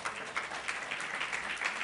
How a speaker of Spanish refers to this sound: Dele un aplauso al rey, por favor.